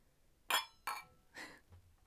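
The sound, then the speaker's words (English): Wine glasses clink together in a toast, two bright ringing taps a moment apart, followed by a softer clatter of glass, with a faint low hum at the end. “That's a hefty pour for probably going to be a nasty wine. True. We probably should have just tasted it before yeah. I poured.”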